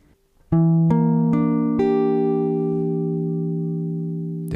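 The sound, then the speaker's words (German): A sustained synth or organ chord, a minor seventh flat-five chord played without its root note, builds up as four notes enter one after another, then rings out steadily and fades slightly before a brief click at the end. “Ich mache jetzt den Grundton aus, dann hören wir ihn einfach so.”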